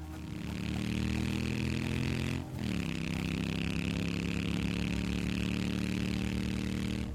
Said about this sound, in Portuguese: Vocês estão correndo, vocês começam a escutar barulho de moto chegando.